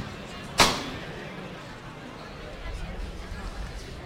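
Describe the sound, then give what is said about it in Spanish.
A single sharp metallic knock rings out near the start: the knocker (llamador) of a Holy Saturday 2023 extraordinary procession float is struck once inside a church before the float is lifted. The knock fades over a low murmur of crowd chatter. “que toma el llamador, ahí está”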